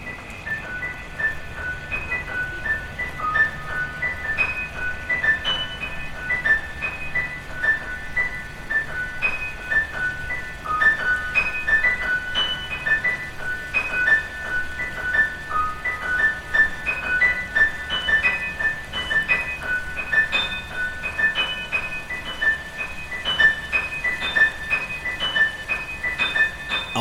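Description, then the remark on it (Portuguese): Steady murmuring of stream water runs throughout, a soft continuous wash, with a scattered melody of high, tinkling piano notes played by a pianist dancing over it. No one speaks. “correr desta água das ribeiras para acalmar o verão, os dedos da pianista … correram pelo teclado do piano, enquanto ia escutando este marulhar da água e as memórias da coreógrafa Olga Rouris numa qualquer sombra do Jardim do Gulbenkian.”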